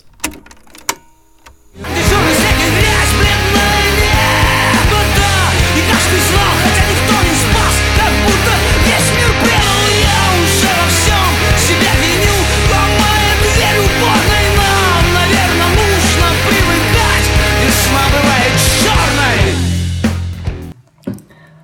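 A new recorded version of a song with full band and singing plays loudly and steadily for about eighteen seconds, starting after a brief quiet moment and cutting off near the end.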